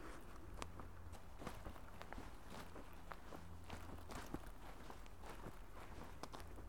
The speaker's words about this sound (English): And when I take a few steps here on the path. You might hear my shoes on the needles of the trees here, the needle trees here.